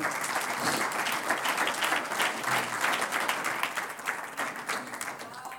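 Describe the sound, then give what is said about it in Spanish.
An audience breaks into sustained applause for the Lord, a dense wash of many hands clapping at a steady level for several seconds, easing off slightly toward the end. “Gracias a Dios por un aplauso al Señor.”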